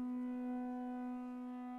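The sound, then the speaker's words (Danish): A steady, siren-like mechanical howl from a motionless Martian machine, a metal tower 30 metres high with a built-in siren, holds a single droning pitch throughout, loud and unbroken, with no voices around it. “Jo, den hylede, det gjorde den. Men den var ikke mere levende end et jerntårn med indbygget sirene.”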